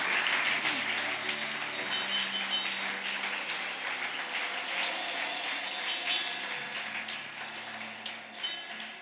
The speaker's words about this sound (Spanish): Dale un aplauso al Rey, aleluya.